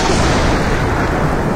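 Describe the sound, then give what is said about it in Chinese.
A loud, steady roar of heavy rain on the way to London, with a deep rumble of thunder running underneath, dense and unbroken for the whole moment, with no voices. “我要冒雨前往伦敦。”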